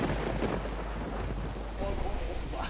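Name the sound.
thunder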